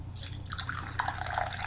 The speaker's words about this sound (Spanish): acabado de salir de la cafetera, así que lo pongo en la taza, lo dejo refrescarse unos breves minutos o segundos